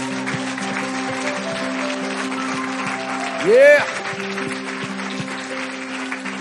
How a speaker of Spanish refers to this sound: En el nombre de Jesús, ¿cuántos dicen amén? ¿Qué tal si damos un aplauso?